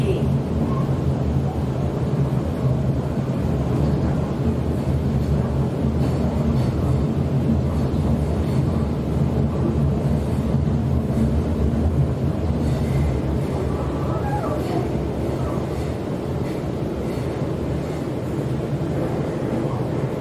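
Inside a moving Sydney commuter train: a steady, heavy low rumble and droning hum of the carriage runs unbroken and fairly loud for the whole stretch, with faint rattles on top.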